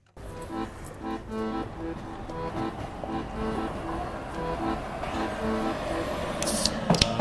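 A train rolls past with a steady low rumble and a rhythmic, repeating clatter of wheels, loud, with a few sharp high squeals near the end.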